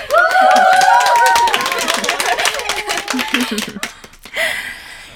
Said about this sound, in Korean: 이게 다 애써주신 우리 코치 여러분 덕분입니다. 자, 박수!